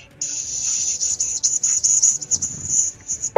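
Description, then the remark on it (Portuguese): A sustained, sharp hiss runs for about three seconds, fairly loud with slight wavering, like a voice imitating a creature that is half snake, half cat. No words are spoken. “meio cobra, meio gato, meio.”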